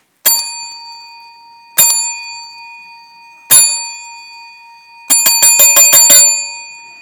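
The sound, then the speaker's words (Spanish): A bright metallic call bell (timbre), rung by Don Herculano, sounds three times with clear pauses between strikes, then a quick rapid peal of about seven rings in succession, loud with no voices. “Don Herculano toca el timbre. Tres llamadas y un repique.”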